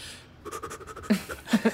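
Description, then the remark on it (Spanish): A person imitates the rapid, rhythmic panting breaths of the labor breathing technique taught in a childbirth course: a quick series of short huffs followed by a few louder, breathier puffs, without any words. “Hmm, pues imagínense que en el curso parecía yo el embarazado, aprendiendo esa respiración que es toda chistosa, ¿cómo es?”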